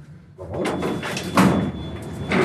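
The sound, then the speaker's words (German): The door of an elevator going up to a blast furnace slides along with a broad, rumbling whoosh that swells for about two seconds, peaking with a firmer thump near the middle, while a thin steady whine hums underneath. “Jetzt sind wir hier im Fahrstuhl.”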